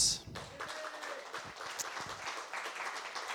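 An audience breaks into steady applause, a dense wash of many hands clapping at once that holds at an even, moderate level from start to finish.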